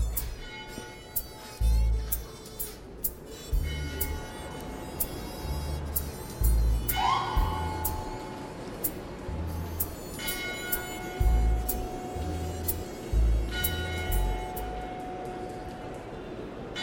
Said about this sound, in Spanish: Ay, las campanas de la iglesia. Me gusta cuando suenan en el podcast.